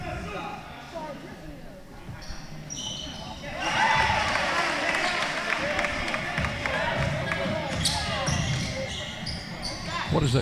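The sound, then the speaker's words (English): Recorded crowd noise played as background by the station during a Middle Tennessee versus FIU basketball game: a steady wash of crowd murmur, low at first, then swelling noticeably louder after a few seconds and holding as a dense, continuous roar of indistinct voices. “crowd noise we're hearing. They played it the last game.”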